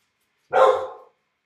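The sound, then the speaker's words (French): A single bark from the dog Ozzy, fairly loud, lasting about half a second with a slightly drawn-out, rough tail before silence returns. “Mais va dehors. Attention, va dehors, va dehors.”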